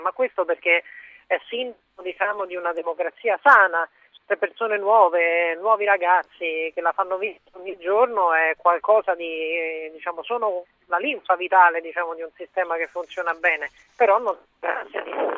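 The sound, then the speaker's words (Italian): Someone speaks continuously over a poor-quality telephone line; the voice sounds thin, narrow and muffled, missing its deep and bright tones, with brief choppy gaps between phrases. “me la sento molto male, o cambia telefono o cambia posto, non...”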